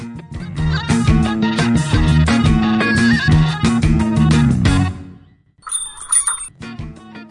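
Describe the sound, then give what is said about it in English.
A bicycle bell rings once with a bright, sustained metallic tone, clear, right after several seconds of loud, dense sound abruptly stops. “I hear that bell, and my life just goes, ah,”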